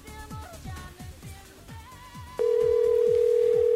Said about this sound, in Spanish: Vamos a ver si está por ahí en el celular. Vamos a ver si lo tiene.